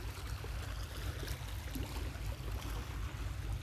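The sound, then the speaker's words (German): A small, bright orange pilot boat's engine drones steadily out on the water, heading from the Kiel lighthouse in the outer fjord toward the Kiel inner fjord: a low rumble under constant splashing and lapping water, with no break in the sound and no voices. “vom Kieler Leuchtturm, der in der Außenförde liegt, fährt der Lotse, ein kleines, klein in Anführungsstrichen, knalloranges Lotsenboot in Richtung Kieler Innenförde.”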